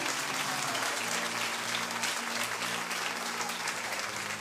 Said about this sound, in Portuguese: Aplauda Jesus com alegria. Aleluia.